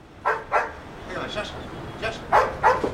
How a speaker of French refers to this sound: Ce sont des malinois. Ils sont formés. C'est un jeu pour les chiens.